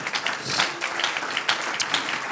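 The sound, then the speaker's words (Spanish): A crowd applauds for the Lord, many hands clapping steadily in a dense, bright wash of sound that holds at an even, moderately loud level throughout, with no voices standing out. “Un aplauso al Señor.”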